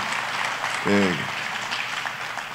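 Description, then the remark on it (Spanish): Loud, steady audience applause for the Lord fills the whole clip as a dense wash of clapping, with a single short voice calling out briefly near the start of the cheer. “Así que le da ese aplauso fuerte al Señor.”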